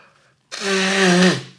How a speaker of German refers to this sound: Ich muss mir immer eine Nase putzen, ihr Lieben. Ganz kurz, ich schneide das nicht raus.